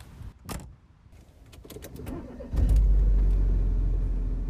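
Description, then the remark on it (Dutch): Inside a housemate's car at 1 o'clock, a few sharp clicks and rattles give way to a sudden, loud low engine rumble that holds steady as the vehicle runs, with no talking. “Ondertussen is het 1 uur en ik zit in de auto bij mijn huisgenootje”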